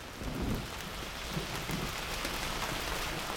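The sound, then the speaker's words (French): Steady rain falls in a dense, hissing wash under a heavy sky in Toulouse, France, on the morning of 20 April 2009, outside the courthouse, with a low rumble underneath suggesting thunder. No voices, just continuous downpour at a moderate level. “Ce matin-là, le ciel de Toulouse est chargé et pluvieux.”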